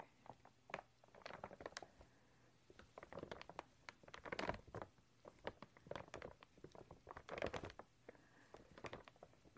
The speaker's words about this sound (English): some sounds with this backing paper.